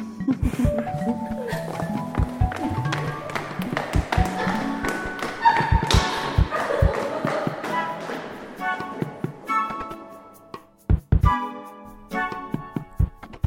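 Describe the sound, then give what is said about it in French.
Foley footsteps climbing stairs in the radio drama Clara et les sortilèges, a steady series of firm taps and thuds moving upward, set against a bed of tonal music that swells and fades. “Pose ton pied là. Une marche, puis l'autre, jusqu'en haut de l'escalier.”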